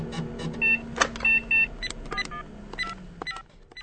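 A mobile phone number being dialed: a quick series of short electronic keypad beeps at uneven intervals, mixed with clicks and light rustling, with no one speaking.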